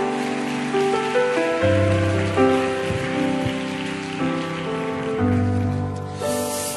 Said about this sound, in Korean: 환영의 박수로 한번 축복해 주시기 바랍니다.